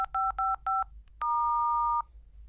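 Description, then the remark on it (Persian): Three short, evenly spaced two-tone keypad beeps, then a longer sustained electronic tone, clear against a quiet low hum, as the keypad of a smart security lock on a toilet door is pressed. “دستگاه جدیدی که میبینید اگر اقراق نکنم تنها دستگاه هوشمند و امنیتی برای ورود به دستشوییه”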